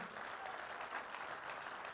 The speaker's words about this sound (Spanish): Yo, yo creo que se merece un mejor aplauso al Señor en esta mañana.